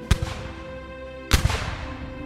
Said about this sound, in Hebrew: לפני שהורה לאנשיו לראות בתותחי המלחמה, ביקש המלך מביתו הנסיכה שתכסה את אוזניה, ושלא תפחד, כי עכשיו ירעמו התותחים.